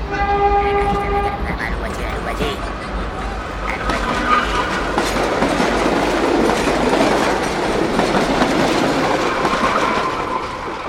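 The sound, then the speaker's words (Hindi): A train rumbles steadily at Bhusawal railway station, its horn sounding in a sustained harmonic blast at the start, followed by continuous rolling clatter and hiss of wheels on track, with faint background voices. “आइए अब सुनते हैं एक ऐसी घटना जो भूसावल रेलवे स्टेशन पर घटित हुई”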